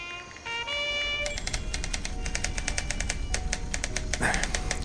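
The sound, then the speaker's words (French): Quick, uneven clacks of typewriter keys tapping away in barracks housing at Fort Bragg, North Carolina, in 1970, after a brief steady tone at the start, moderately loud, with a faint hum underneath and no voices. “Oh non non Tu es encore debout Hein Vu la façon dont tu tapes sur cette machine, je sens que je vais t'attendre encore longtemps.”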